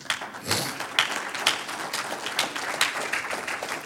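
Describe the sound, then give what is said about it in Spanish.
An audience applauds the Lord, a dense, steady wash of many hands clapping, with a few sharper individual claps standing out over roughly four seconds at a fairly even loudness. “Un aplauso al Señor.”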